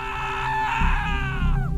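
A man lets out one long, loud, high-pitched scream of fright when a hand is placed on his shoulder on a deserted road in heavy rain; it holds steady and then drops sharply at the end, over a low rumbling background.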